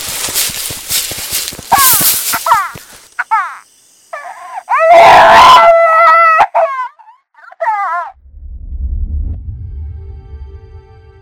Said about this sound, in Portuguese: Aquilo que ouvíamos estava se repetindo. Um choro baixinho e engasgado, que ia crescendo e se tornava um lamento e terminava em um soluço, até começar tudo novamente.